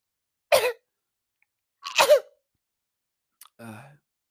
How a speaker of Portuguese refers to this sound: A minha tosse agora é assim.